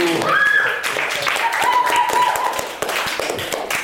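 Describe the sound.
Steady applause: dense, rapid clapping runs through the whole stretch at a fairly loud level, with voices and a few higher tonal cries mixed in above the clapping.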